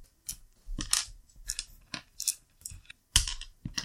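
Dice clatter as all of them are scooped up to be rolled, a series of sharp plastic clicks and rattles over a few seconds, ending in a louder tumbling roll across a hard surface, with no talking.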